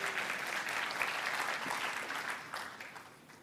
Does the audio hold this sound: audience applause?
yes